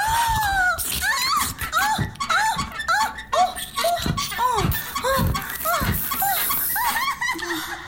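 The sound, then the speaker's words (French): A voice acts out exaggerated cries of pleasure, a rapid string of loud moans that rise and fall in pitch, repeating over and over with barely a pause. “Puis, à un moment donné, dans ma scène, c'est ça, je faisais pousser des gros cris de, jouissance.”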